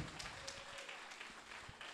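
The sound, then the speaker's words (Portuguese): A crowd claps together as applause for Jesus, in a steady, dense patter of many hands, filling the whole moment with a broad rush of applause. “Dê um aplauso a Jesus.”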